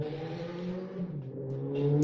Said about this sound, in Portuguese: Tá passando uma moto. É. Ah, é, passou uma moto aqui, gente, desculpa.